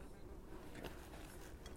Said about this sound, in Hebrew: לכי מפה, דבורה מגעילה. תשחקי מהפרצוף שלי.